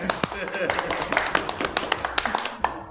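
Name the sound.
audience clapping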